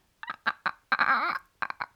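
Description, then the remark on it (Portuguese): A voice imitates a chicken: three short clucks, a longer wavering squawk in the middle, then three more quick clucks, fairly loud with no other sound. “Eu, eu não sei o que é que imita, acho que é uma, uma galinha que é tipo.”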